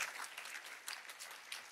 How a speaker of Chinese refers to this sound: 拍手把荣耀归给主，好不好？大声的拍手把荣耀归给主。